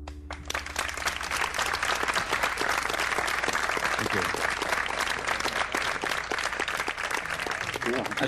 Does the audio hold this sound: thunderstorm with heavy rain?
no